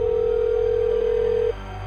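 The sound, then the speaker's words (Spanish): A steady, loud telephone dial tone hums on one pitch for about a second and a half, then cuts off abruptly, leaving a low background hum with no voices. “Unos minutos más tarde se levantó y fue al teléfono.”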